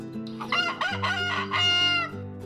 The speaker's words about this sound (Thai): ชาวนาก็ยังไม่ปรากฏตัว ไก่ก็เลยขันอีกครั้ง และอีกครั้ง